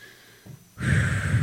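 A brief soft intake gives way to a strong, sustained huffing exhale, fairly loud, like Lamaze-style breathing; no one speaks.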